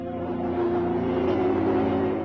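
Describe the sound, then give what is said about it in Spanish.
A 'digital drug' audio track called Puerta de Hades, downloaded from a website and said to cause hallucinations: a steady, loud drone of layered low humming tones that holds continuously for a couple of seconds, with a faint wavering throb and no voices. “Se trata de sonidos que alteran las ondas cerebrales”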